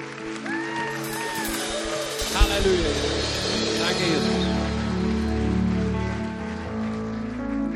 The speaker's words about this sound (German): Lasst uns Jesus mal einen Applaus geben.